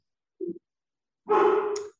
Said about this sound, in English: my dog is barking, so we're going to have to do something about that in a second.